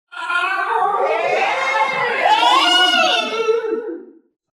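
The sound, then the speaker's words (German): A single voice imitates creatures with repulsive voices shrieking in frustration after their spear is knocked aside into the water: one loud, strained, wavering scream that rises and falls in pitch for about four seconds, without words. “Die schreien frustriert auf und die haben wirklich widerliche Stimmen.”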